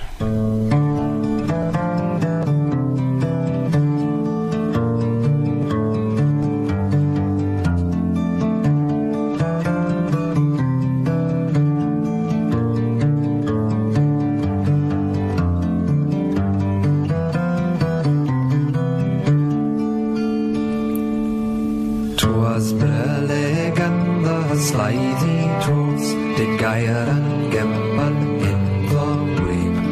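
A folk song plays continuously for the whole stretch, a melodic English vocal line singing a children's poem over steady acoustic accompaniment, full and fairly loud, with a brief shift in texture near the end.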